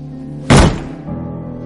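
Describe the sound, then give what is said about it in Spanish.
A fist is punched down on a table: a single heavy thump bursts out loudly over a low steady background hum and fades quickly. “Bosco da un puñetazo sobre la mesa.”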